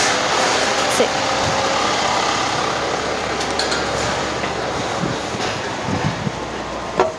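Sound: truck passing by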